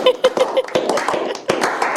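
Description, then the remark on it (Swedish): A short, thin burst of applause played as a sound effect, just a few scattered hand claps popping irregularly over a dull background murmur for about two seconds. “Kör en applåd på det. Men det är så jävla kass applåd.”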